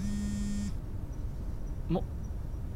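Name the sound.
telephone ringing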